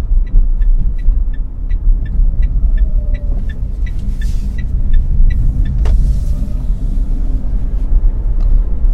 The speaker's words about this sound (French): je vous laisse avec un petit peu, encore un petit peu d'écoute du silence, ou tout du moins de ce bruit particulier quand on est en voiture électrique.